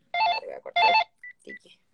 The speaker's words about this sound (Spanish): Ay, espérate, me está sonando el teléfono.